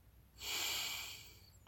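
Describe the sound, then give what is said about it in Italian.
A single deep breath drawn in through the nose, an airy hiss that swells quickly, holds for most of a second, then slowly fades, with no talking. “Inspiro ed espiro. Qualunque cosa sia, inspiro ed espiro e rinasco.”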